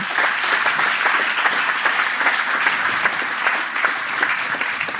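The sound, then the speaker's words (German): Sustained audience applause for a speaker after a talk, a dense, steady wash of many hands clapping at an even loudness for several seconds with no voices standing out. “Ich finde, es ist auch trotzdem Zeit, einen Applaus für Sie aus dem Publikum.”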